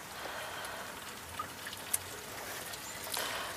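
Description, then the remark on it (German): Water pours steadily into a container as a visitor fills up some of the good water for themselves, with a soft, continuous splashing hiss, broken by a few faint clicks and taps, heard quietly and with no talking. “Jemand füllt sich das gute Wasser ab.”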